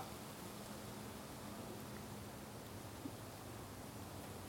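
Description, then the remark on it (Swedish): Birch leaves rustle softly in the wind, a faint, steady hiss of foliage that continues without pause. No voices are heard. “De närmsta löven här i björken som rasslar.”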